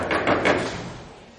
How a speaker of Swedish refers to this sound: Han knackade på dörren.